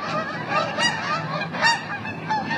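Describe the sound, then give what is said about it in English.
A flock of over forty geese honks continuously, many overlapping calls layering into a noisy chorus with a few louder cries standing out. No one speaks. “We have to pause while we take a sip of wine and listen to the geese.”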